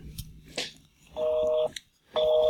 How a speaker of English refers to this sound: It's busy. It's out of out of service. That sounds like a busy signal to me.